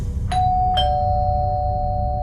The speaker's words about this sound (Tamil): லூசியோட வீட்டு கதவோட பெல் அடிக்கிற சத்தம் கேட்குது